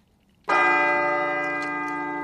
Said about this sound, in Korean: 아, 그렇구나. 경건한 종소리입니다. 종소리. 오늘 보물소리가 오늘하고 맞는 소리죠. 종소리가 보물소리입니다.